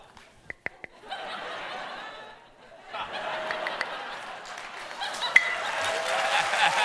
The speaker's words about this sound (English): Quick, quick. no, I need to knock on wood.